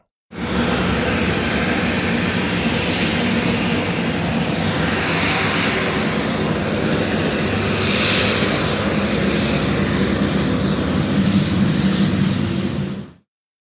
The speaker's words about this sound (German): Na, jetzt mal ehrlich, wer hat's erkannt? Das war das Triebwerk von einem Flugzeug.